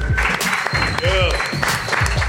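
A crowd at a live music event cheers and applauds loudly for the performers, dense clapping mixed with whoops and shouts, sustained throughout with a steady roar of noise.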